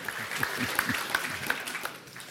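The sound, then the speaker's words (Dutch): A short burst of audience applause, dense overlapping hand claps from a crowd that fade out after about two seconds, with faint voices mixed in underneath. “ik vind dat het applaus iets te kort, iets te kort duurde.”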